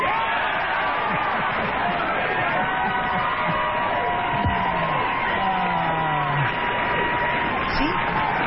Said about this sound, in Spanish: En 1987, después de publicar The Art of the Deal, El arte de la negociación, Donald Trump visita eh, a David Letterman y así le aplaudía.